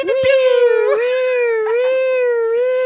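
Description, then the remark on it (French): A single voice imitates a siren, holding one long, loud wailing tone for about three seconds with its pitch gently rising and falling. No other sounds are present. “Et ensuite, on fera une alerte spoiler très claire avec genre des bruits de sirènes qui font”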